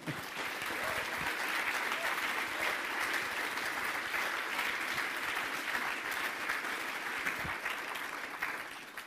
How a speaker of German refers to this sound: Daher bitte ich jetzt um einen ordentlichen Applaus, dass einmal gut gelaunt ist am Anfang.